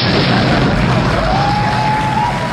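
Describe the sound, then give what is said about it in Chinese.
A loud explosion sound effect: a dense, roaring blast with deep rumbling low end that stays heavy for a couple of seconds, with a thin whistling tone rising faintly through the noise. “愿所有邪恶的人原地爆炸。”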